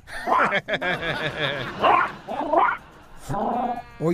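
A small dog yaps repeatedly up close, a string of high-pitched barks in quick, uneven bursts with short pauses between them.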